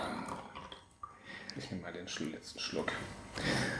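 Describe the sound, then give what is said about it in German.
Coffee is poured into a cup as a refill in a kitchen, a steady, gurgling splash of liquid that keeps running for several seconds with small drips and swells in loudness. “Wenn man in der Küche ist, dann plätschert Kaffee.”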